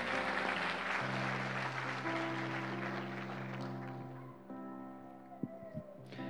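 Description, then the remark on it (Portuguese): A crowd applauds for Jesus in a dense, steady clatter that gradually thins out after about four seconds, with sustained low keyboard chords holding underneath and a few scattered claps at the end. “Dê uma salva de palmas ao nosso Rei Jesus aí.”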